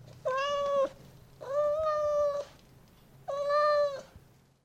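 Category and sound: animal, cat meowing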